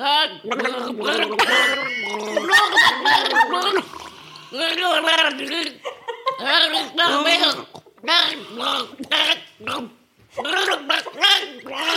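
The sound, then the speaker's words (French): Loud gargling of liquid in the throat while trying to sing song lyrics as a challenge, a wet bubbling rattle that comes in several sustained bursts with short pauses between them. Brief voices break in between the bursts. “Bah, avec hein, un gargarisme du coup.”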